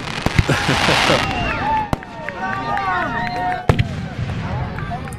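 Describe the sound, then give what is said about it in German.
Fireworks sound effect: sharp cracks and bangs punctuate a stretch of whistling, crackling bursts, with a steady background hiss and a few loud pops standing out near the middle and end. “Und, das spielen wir äh, jetzt an dieser Stelle ein Feuerwerk ein.”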